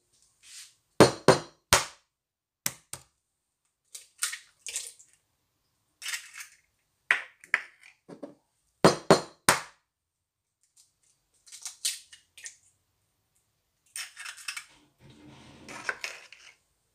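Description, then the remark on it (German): An egg is cracked open: a series of sharp, hard taps of shell against an edge, then a brief crunching, crackling break as the shell is broken open, with a soft wet trickle at the end as the liquid yolk and egg white run out. No voices. “Wenn man ein Ei aufschlägt, also wenn man es an der Schale etwas einknackt und dann aufbricht, dann sieht man, wie das flüssige Eigelb und das Eiweiß herausläuft.”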